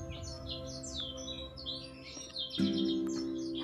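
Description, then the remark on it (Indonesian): Many high, thin swiftlet chirps twitter continuously in quick overlapping bursts over a steady low hum; no voices are present. “Hari masih gelap saat kicau burung walet mulai terdengar.”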